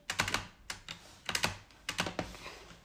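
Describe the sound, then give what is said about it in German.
Quick bursts of sharp clicks from a new Rocket computer mouse while playing a jump'n'run game, fired in small rapid clusters of three or four with brief pauses between, fairly crisp, with no one talking. “Vielleicht hört das schon im Hintergrund das Abuse-Geräusch. Und das deutet auf eine neue Maus hin.”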